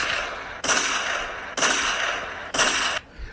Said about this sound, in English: Where them gunshots at? We need them gunshots back. Yeah, here we go.